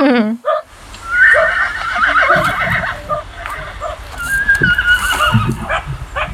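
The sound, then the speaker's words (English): A horse lets out a shrill, quavering whinny, then more neighs and snorts follow over a steady outdoor background, loud throughout. “And goodbye from the horses, too.”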